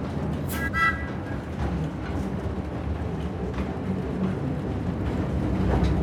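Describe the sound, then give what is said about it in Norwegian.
A narrow-gauge train with one-metre track gauge at Orkla Industrial Museum in Løkken rumbles along steadily with dense low-end rolling noise, faint rhythmic track clatter, and a brief high metallic squeal near the start; no voices. “Løkken har 333 års gruvehistorie å se tilbake på, men nå går toget.”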